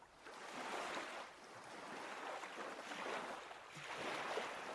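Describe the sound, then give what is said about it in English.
A motorboat cuts across the water, its steady rushing wash swelling and easing in waves of spray and surf, loud with no voices. “This is the Fidelity boat. This is actually one of the boats here.”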